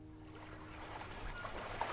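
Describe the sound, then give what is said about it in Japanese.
Several rowboats drift on a pond, their rowers resting the oars, with soft, steady water lapping and a faint low rumble underneath, continuous and moderately quiet, with no voices. “池にはいくつものボートが浮かんでいる若いカップル老夫婦女性同士オールをこぐ手を休めてさざ波に我が身を委ねる”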